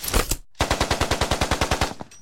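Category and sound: sound effect, machine gun fire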